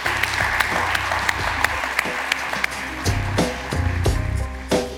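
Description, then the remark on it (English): An audience claps steadily for several seconds to thank Stewart of Slack, a dense patter of many hands with a few sharper individual claps standing out, continuous throughout. “joining us, and uh, please, everybody, help me in thanking Stewart.”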